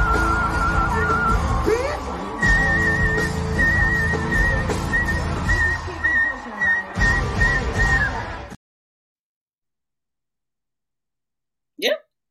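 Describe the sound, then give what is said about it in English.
A flute plays sustained, high, wavering notes over a loud, busy crowd-like background for several seconds, then cuts to silence before one brief sharp burst near the end. “she plays the flute and then yells, "Bitch!" And she keeps playing a little bit more”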